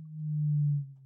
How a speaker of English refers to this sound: I'm just going to interject here. If you can hear some weird drilling, it appears that our big office block is having some um,